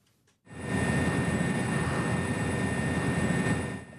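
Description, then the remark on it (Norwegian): A helicopter's steady engine and rotor roar by an oil platform in the North Sea in the morning mist starts abruptly and holds at an even, fairly loud level for several seconds, a broad rumbling drone with a faint high whine on top and no voices. “Et lys fra et helikopter kan skimtes i morgendisen ved en oljeplattform i Nordsjøen.”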